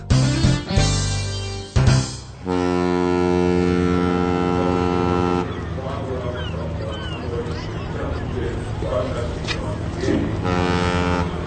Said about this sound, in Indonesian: Dengarkan adegan pertama di dermaga pelabuhan Hamburg.